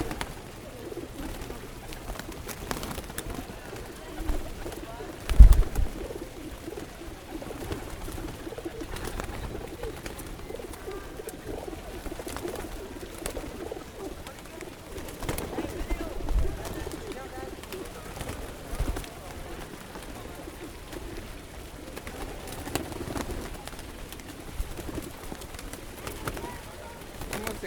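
Soft, repeated pigeon coos murmur low throughout, a steady throaty burble from several pigeons in Rome, with faint background noise and occasional rustles.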